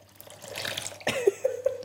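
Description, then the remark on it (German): Water splashes and trickles into a pan as water is added for a broth, starting with a broad hiss and then settling into a steady pour with a few bright bubbling plinks. It is fairly loud, with no talking. “Also ich mache jetzt Wasser in diese Pfanne, machen wir?”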